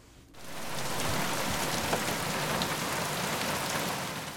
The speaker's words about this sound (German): Buenos Aires mitten im Winter. Es regnet in Strömen.